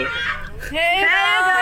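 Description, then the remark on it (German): Festival-goers at a campsite shout a drawn-out call in two loud bursts, the second longer and rising, their hoarse voices carrying across the open air over a low background murmur. “Ihr hört es im Hintergrund. Helga wird immer das noch geht”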